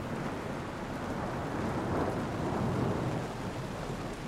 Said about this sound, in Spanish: Los truenos suenan, la lluvia cae a cántaros.